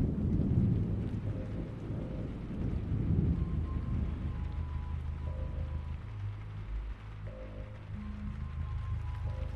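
Steady rain hisses throughout, with a deep rolling rumble like thunder swelling in the first few seconds, then a quieter low drone beneath the downpour. No one speaks.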